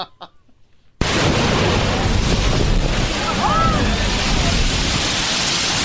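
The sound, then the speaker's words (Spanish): A sea blowhole, La Bufadora, bursts into a loud, sustained roar of rushing water and spray after a second of faint murmuring voices, the broad whooshing noise holding steady for about five seconds. “¿Eso, qué es? es? la bufadora donde fue el diablito.”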